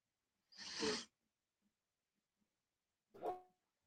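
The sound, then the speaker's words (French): Two short, rough dog vocalizations about two seconds apart, the first breathy and noisy, the second a sharper bark-like yelp, fairly quiet with no talking. “Désolé, j'ai un petit problème de chien.”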